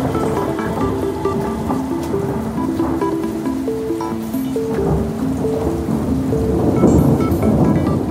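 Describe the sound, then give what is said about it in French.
Heavy rain pours steadily during a storm at Fréjus that drops up to 128 mm of rain, with deep, rolling thunder rumbling underneath, a dense and continuous storm wash that swells slightly louder near the end, while a soft melodic line plays over it. “À Fréjus, il tombe jusqu'à 128 mm de pluie.”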